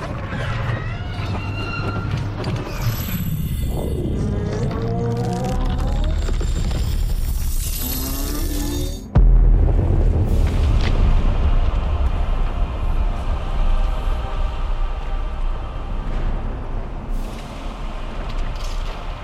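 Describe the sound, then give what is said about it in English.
Eerie warbling, creaking tones build for several seconds, then a sudden loud crack of thunder breaks into a steady, deep rumble that shakes on to the end, with no one talking. “sky suddenly clouds start to gather, blackened clouds, and this you hear the crackling of thunder. The ground starts to rumble slightly as if the elements of this ele- of the material plane are angered at the at the depravity of opening this portal.”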